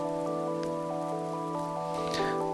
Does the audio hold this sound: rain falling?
yes